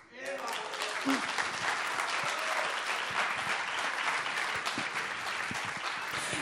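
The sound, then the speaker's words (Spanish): An audience present applauds steadily, a dense wash of many hands clapping that holds at full strength for several seconds after a brief spoken moment at the start. “Totalmente de acuerdo, el público presente también aplaude.”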